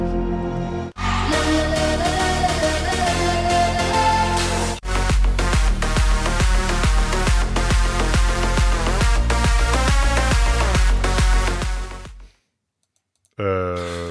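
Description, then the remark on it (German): An artist's newest pop single plays back loud and full, with a steady driving beat and bright layered instruments, then cuts off abruptly; after a short silence a voice starts talking. “Das neueste Single.”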